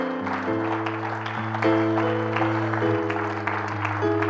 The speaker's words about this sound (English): Oh, come on, somebody, clap your hands unto the Lord.